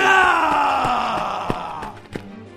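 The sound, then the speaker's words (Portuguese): A voice imitates a monster screaming from within the darkness after a shot is fired toward it: a loud, strained, drawn-out howl that slowly sinks in pitch and fades, with a few sharp clicks near the end. “Tu dá um tiro em direção à escuridão e tu escuta um barulho assim de um monstro gritando tipo.”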